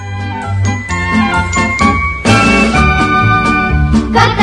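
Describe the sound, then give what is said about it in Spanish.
A festive Spanish Christmas carol (villancico) recording with bright jingling bells over a steady rhythmic accompaniment, loud, the instruments swelling fuller partway through. “Escuchémoslo por última vez.”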